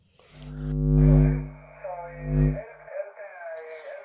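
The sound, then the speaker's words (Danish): Shortwave amateur radio interference on the 80-metre band, caused by disturbances in space: a loud droning buzz with warbling, whistling tones and hiss, fading into thinner garbled, voice-like chatter through steady, continuous static. “der er også en del støj i øjeblikket”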